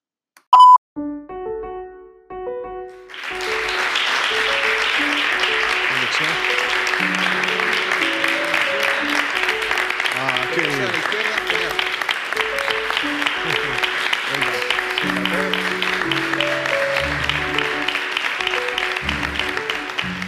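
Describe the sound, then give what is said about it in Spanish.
A brief electronic beep and short chime open, then an audience at a talk breaks into loud, steady applause as the speaker sits down, many hands clapping at a constant level for the remaining seventeen seconds. “Yo creo que es la primera vez en mi vida que me aplauden por sentarme, pero os lo agradezco.”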